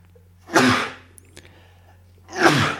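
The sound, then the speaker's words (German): Two forceful sneezes from a person with hay fever, about two seconds apart, each a loud, breathy burst, with quiet hum and a few faint clicks between them. “wir können auch einfach mal irgendwie so eine Folge machen, wo du die ganze Zeit am Niesen bist.”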